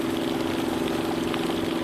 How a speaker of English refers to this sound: And then there was also the freshwater maker, the desalinator, and that was just.